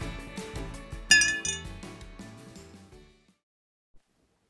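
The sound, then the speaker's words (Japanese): Glasses clink together in a bright, ringing toast made with milk, with a cluster of light chimes building to one sharp clink before the sound fades into near silence, followed by a faint tap. “じゃ乾杯しよっか牛乳で乾杯”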